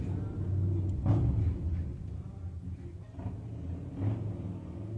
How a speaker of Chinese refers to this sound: 大家听得到。我身边的这呼啸而过的那种大型摩托车的声音哈，呃，我现在在中加州的海边的一个城市，叫做蒙特雷，就是比较繁华的一个街边的路上。